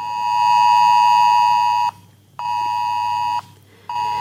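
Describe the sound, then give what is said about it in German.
A phone alert alarm, set off by being near a coronavirus location, sounds a loud, steady electronic tone in long bursts of about one to two seconds, repeating three times with short pauses between, clear with no voices. “Wenn man sich in der Nähe eines Corona-Ortes aufhält, geht ein Alarm los.”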